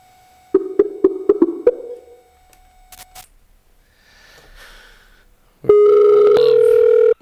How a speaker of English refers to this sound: And for that, we are going to dial up the old Skype